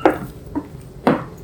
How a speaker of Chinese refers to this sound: 然后中午的话呢，因为中午大家都会在外面走来走去嘛，所以我自己很喜欢一个声音，就是皮鞋鞋跟的声音，给大家听听看。